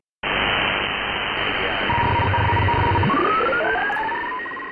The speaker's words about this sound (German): Das, was wir hier im Hintergrund hören, ist Funkkontakt ins Orbit.